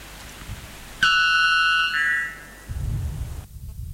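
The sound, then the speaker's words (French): A piercing electronic radio jingle announcing the end of a news flash: a sudden bright, buzzy tone holds for about a second, then steps up to a slightly higher note before cutting off, followed by a low rumble. “Ce jingle perçant annonce la fin du flash info.”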